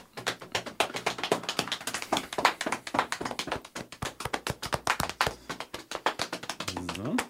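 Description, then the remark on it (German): Rapid, continuous patting of hands against the right side of the body, a dense stream of soft slaps at a brisk steady rhythm, moderately loud, with no talking. “Und jetzt machen wir das Ganze mit der rechten Seite nochmal an.”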